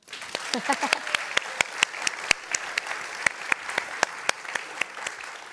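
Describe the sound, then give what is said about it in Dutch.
A crowd applauds steadily for Tineke de Nooi, the first female radio DJ, with many sharp, irregular claps rising above a dense wash of clapping. A few brief voices murmur and call out at the start before the applause carries on alone. “We doen nog een applaus.”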